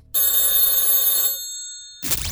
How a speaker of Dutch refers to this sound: Maar let op, want als bij jou de telefoon gaat, dan is het misschien wel de hindertelefoon.